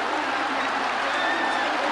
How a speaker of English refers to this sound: And Randy Bass is the one who catches the ball to make the final out of the game. And the crowd goes wild. There are people sobbing. They are so excited.